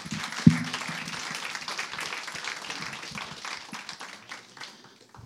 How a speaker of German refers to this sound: Also lasst uns einmal wirklich mit einem kräftigen Applaus alle begrüßen, die da online zuschauen.